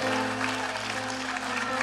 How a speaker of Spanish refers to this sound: Oh, alguien tiene que aplaudir al Señor. Oh, gloria a Dios. Apláudalo, apláudalo fuerte, apláudalo.